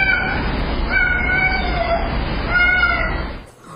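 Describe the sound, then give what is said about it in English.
A cat meows in a long, drawn-out, wavering series of cries, captured as enhanced security camera audio, over a steady hiss of background noise, loud, with a hollow, low-fidelity recorded quality. “And then the owner believes the cat said, Mom, where are you, Mom?”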